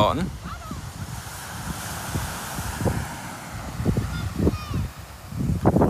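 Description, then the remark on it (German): Steady outdoor seaside ambience on a sunny beach in Denmark by the North Sea, with warm wind: a broad rush of surf and wind fills the background, with occasional honking bird calls and faint, indistinct voices. “Wie bünd hier in Dänemark nett an Strand. Ich weiß nicht, ob man das hören kann. Im Achtergrund.”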